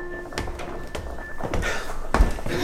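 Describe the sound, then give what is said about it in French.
A small door that's stuck shut in a house in the Luberon being tried: four dull, rattling thuds about every half second as it's pushed and pulled, over a faint steady hum. “C'est la petite porte, là.”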